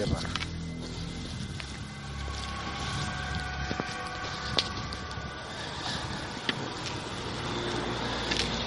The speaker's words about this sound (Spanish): pues le he comentado aquí con apagar la linterna porque subía otro coche. Están subiendo bastantes coches y por no llamar la atención con las linternas en la entrada de del complejo.